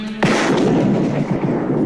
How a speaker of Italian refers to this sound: Fatto. Ma dove hai imparato a sparare così? L'ho vista alla tv.